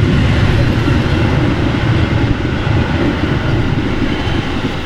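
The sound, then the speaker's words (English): A loud non-stop express train roars through without slowing, a steady, dense rumble with rattling wheels filling the whole stretch with no letup. “That was a that was a non-stop one. That one. Yeah, that was an right express.”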